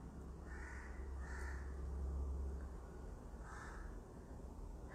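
Several crows caw outside in short harsh bursts, a few calls spaced across the stretch, over a steady low rumble of background noise.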